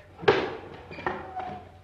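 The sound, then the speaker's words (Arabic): A door is opened: a sharp clack of the latch, followed by a couple of softer knocks and a faint creak as it swings. Moderately loud, with no talking. “ها قد وصلنا أيها الضرير الحمد لله انتظر حتى أفتح الباب”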